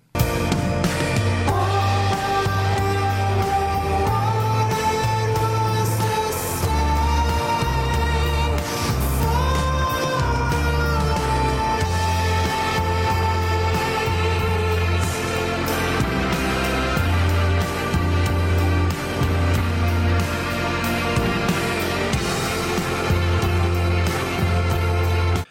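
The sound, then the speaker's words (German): Steady, full-band rock music with a thick, pulsing bass line, sustained shimmering tones and layered guitars or keys, playing loud and continuous throughout without any talking. “Ja, Musik zum Träumen, zum Schwelgen, zum in anderen Sphären schweben.”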